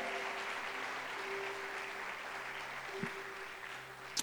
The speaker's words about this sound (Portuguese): Aplauda Jesus porque ele é bom. Aleluia.